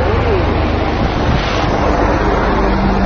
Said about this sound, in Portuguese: Opa, tá no helicóptero aqui, ó, né?